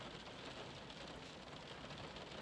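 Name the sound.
steady rain falling outside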